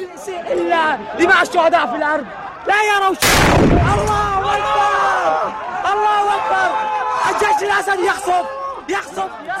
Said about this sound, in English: Laura Lynch, so we're hearing this big blast, which apparently damaged uh, at least the front of one of the white UN SUVs. We hear people screaming.